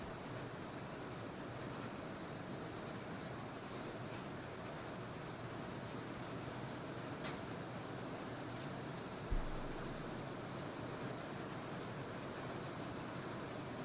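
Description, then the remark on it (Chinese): Heavy rain pours down outside, picked up by a microphone pointed outdoors, in a steady, dense roar of hiss and patter that never lets up, broken only by one brief low thump partway through. No one speaks. “外面雨很大哦，大家是不是已经听到那声音了？”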